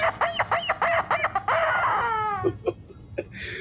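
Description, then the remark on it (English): A rubber chicken toy squawks in a quick run of about five honking bursts, then lets out one long, sliding squeal that trails off, loud with no talking. “And the rubber chicken says.”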